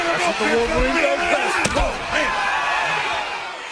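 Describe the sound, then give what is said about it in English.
A few heavy thuds of bodies slamming onto a wrestling ring in a WWE match between Chris Benoit and John Cena, one sharp and loud, over a dense roar of crowd noise with voices shouting throughout. “What you just heard is one of Chris Benoit's greatest fights, where he was defeated by the recognized wrestler John Cena.”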